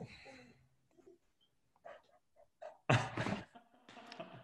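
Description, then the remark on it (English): A dog makes soft, scattered whimpers and short yelps, then lets out a couple of loud, sharp barks, with brief pauses in between. “My dog still wants to be in on the interview.”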